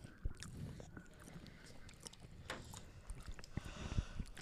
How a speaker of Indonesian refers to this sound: udah ngunyah udah ada aja. berisik